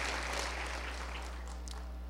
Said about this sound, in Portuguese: Aplauda mais forte se for para Ele.